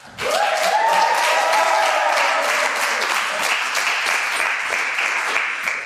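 An audience breaks into sustained applause, a dense wash of many hands clapping that holds steady for several seconds before gradually thinning toward the end.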